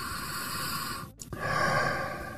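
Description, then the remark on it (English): A man breathes in urine through a nebulizer, its steady airy hiss and faint mechanical hum running continuous, broken by one brief pause midway before the inhaling hiss resumes. “Yeah, he's breathing it in.”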